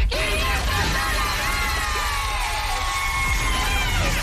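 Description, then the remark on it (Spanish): A group of people scream and cheer excitedly, overlapping high-pitched shouts and whoops that stay loud and continuous for several seconds: winners celebrating in the 'La canción del millón' cash contest on radio station El Nuevo Sol 106.7. “Te repito cuál es para que puedas gritar y celebrar como ellos.”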